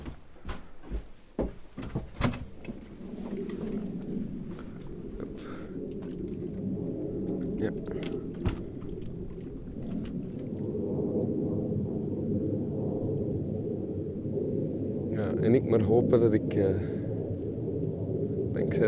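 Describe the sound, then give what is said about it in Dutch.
A few sharp knocks and clicks, then a low, steady roar swells and holds for over fifteen seconds as a jet airplane flies overhead, heard from indoors and fairly loud. “Wat mij enorm tegenvalt aan de plek is dat er de hele tijd vliegtuigen overheen vliegen.”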